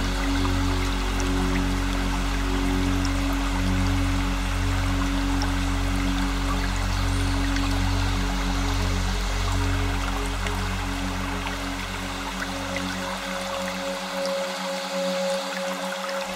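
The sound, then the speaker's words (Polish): A small stream warmed by the sun babbles steadily and continuously as it flows from one rock ledge down to another, an even wash of trickling water with no voices, holding the same level before easing slightly near the end. “szum małego strumienia ogrzewanego promieniami słońca.”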